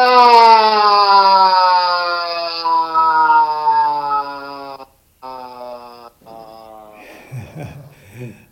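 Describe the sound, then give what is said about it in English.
A loud, sustained primal vocal sound made after a deep breath through the nose with the jaw open: a long open-throated howl whose pitch slowly slides downward for several seconds, then breaks into shorter, fading tones and breathy, rough noises. “So it's just simply by using breath, taking a, a, a good deep breath through the nose open the jaw and make we're going to make a primal sound”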